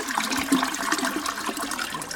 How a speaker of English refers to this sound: Yeah. Flush. exactly. if we were like slightly, if we were slightly more um, technologically advanced, we could just put the flush sound. Oh my god! After every one of these, that would have been great.